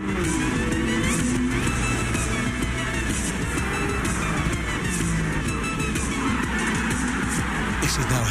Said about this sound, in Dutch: Maar ja, dit is lekker hè? V12 Ferrari. Ja, het automerk bestaat 75 jaar.